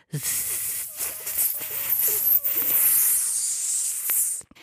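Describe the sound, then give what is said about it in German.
A voice produces a long, sustained hissing S like a snake, steady and fairly loud for several seconds before cutting off abruptly, demonstrating the faulty hissed S of a lisp. “Was nicht sein soll, ist, dass das S gezischt klingt, also wie bei einer Schlange”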